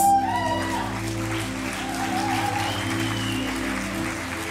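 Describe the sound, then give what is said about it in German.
Steady applause from an audience for a person being called up onto the stage, dense and sustained, with a low musical hum or band playing underneath. “Ein Applaus für Johannes!”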